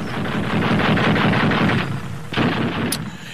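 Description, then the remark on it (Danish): Loud, rapid machine gun fire of Estonian SS volunteers and German troops rattles in a sustained burst, breaks off briefly, then resumes with more shots and a short high-pitched whine amid battle noise, with anti-aircraft guns in action, at the Narva front in 1944. “Ja, vi hører her estiske SS-frivillige og tyske troppers maskingeværer og flakrasseleri i aktion ved Narva-fronten i 1944, som det blev fremstillet i den tyske ugerevy.”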